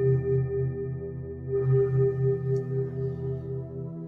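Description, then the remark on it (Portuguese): A bell resonates in a long, sustained hum of layered low and mid tones, its sound pulsing gently in slow, wavering beats without fading, and no voices are heard. “Ouça o ressoar do sino.”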